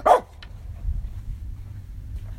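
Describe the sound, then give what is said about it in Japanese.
A dog named Rai gives one sharp, loud bark because a neighbour has come by, followed by a fainter yip and then quiet low background rumble with no talking. “ちょっとあの近所の人が来てライが吠えてます静かにしてラジオ撮ってるから静かにして”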